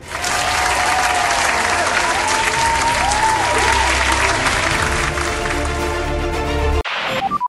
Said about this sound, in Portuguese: Então, menção honrosa para Alfa Romeo. Palmas para Alfa, Alfa Romeo. Palmas para Alfa Romeo. Acho muito muito merecida.